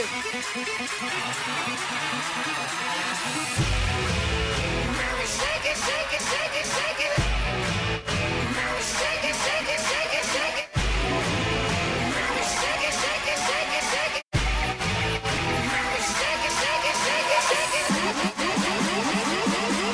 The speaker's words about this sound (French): Et ouais, les remix rock comme ça, y a rien de mieux. Version 2021, écoute ça.